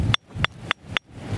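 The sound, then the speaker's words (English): Four sharp, evenly spaced knocks of a piece of moose antler striking a great big flint nodule from Aberystwyth beach, each a hard clack with a brief bright ring, steady in rhythm with no voices. “beach on our great big flint nodule, and this is moose.”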